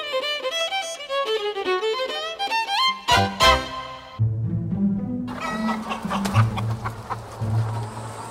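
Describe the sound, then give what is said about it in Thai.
A brief melodic musical phrase gives way to a busy barnyard on a chicken farm where hundreds of chickens live: many chickens clucking together with a rooster crowing, a dense, continuous chorus at moderate loudness. “ณฟาร์มไก่แห่งหนึ่ง มีไก่ได้อาศัยอยู่ที่นี่นับร้อยร้อยตัว ไก่เป็นสัตว์ที่มีนิสัยชอบตื่นเช้า”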